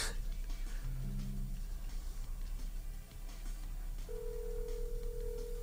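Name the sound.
telephone call ringing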